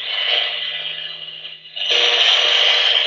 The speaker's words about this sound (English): But uh, it's a matter of you know get your own meter. Um, you got to listen to the sounds. We didn't do that on the podcast, but I'll show you. This is what the, the cell phone frequencies sound like.